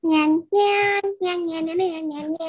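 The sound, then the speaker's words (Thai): A loud voice imitates a ground squirrel's mating call with a rapid run of high, nasal, squealing syllables, about five sustained bursts separated by brief breaks. “อันนี้คือเสียงตอนที่มันผสมเสร็จออกมาแล้ว หรือว่าตอนกำลังผสมนะ”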